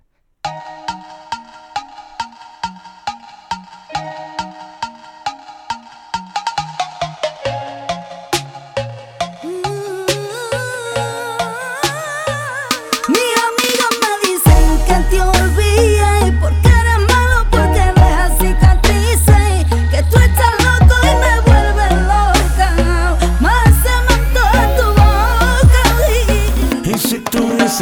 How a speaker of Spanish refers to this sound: vámonos con ese tema que nos pedía la tía Tere, que nos eh, facilitaba esta llamada, a mí me ha encantado,